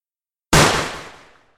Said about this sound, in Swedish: I fjärran hörde jag ett gevärsskott som ekade.